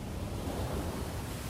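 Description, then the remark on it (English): A steady, full rush of ocean surf, fairly loud, with a broad wash of noise and a low rumble rolling underneath, no voices. “the ocean.”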